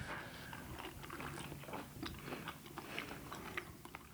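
Crunchy biting and chewing of Brussels sprouts, a steady run of wet, crisp mastication sounds with small snaps, loud, with no talking.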